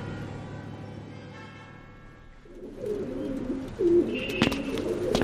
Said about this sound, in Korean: 저게 다 뭐예요? 비둘기. 근데 쟤들 왜 저래요? 사람들이 지나가는데도 왜 안 날아요?